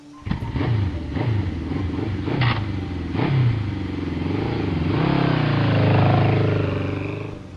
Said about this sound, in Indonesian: Balasku membuat Septian pergi dengan motornya.